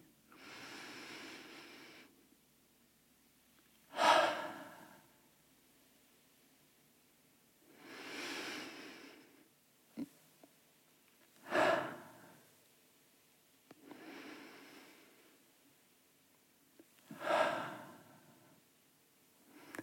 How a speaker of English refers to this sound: And start to take deep breaths in through the nose, out loudly through the mouth. And do at least three of those with me.